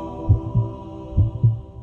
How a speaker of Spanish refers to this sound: Escucha el latido de tu corazón.